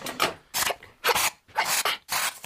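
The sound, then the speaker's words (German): Rough scratching and tearing as sharp claws rip open a parcel, about five harsh raspy bursts in a steady rhythm with brief pauses between them, no voices. “So, nicht mehr nötig. Mann, deine Krallen sind aber wirklich scharf.”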